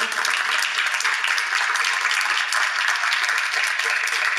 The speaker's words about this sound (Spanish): Gloria a Dios. Vamos a darle un aplauso a Jesús.